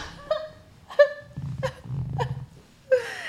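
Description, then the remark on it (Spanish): A voice imitates an exaggerated wailing cry like the crying in the TV show La Rosa de Guadalupe, in a string of short, pitched, wavering sobs, fairly loud, ending in a higher drawn-out whine over a low background rumble. “Ese era el llanto de la Rosa Guadalupe.”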